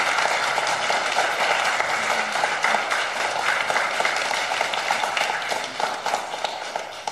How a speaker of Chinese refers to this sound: 我们再次用最热烈的掌声来感谢天父。